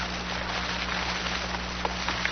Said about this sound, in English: The rain hissed on hot metal.